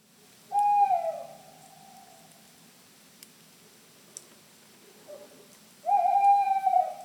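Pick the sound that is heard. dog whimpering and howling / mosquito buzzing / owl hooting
owl hooting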